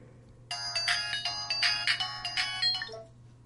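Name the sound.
telephone ringing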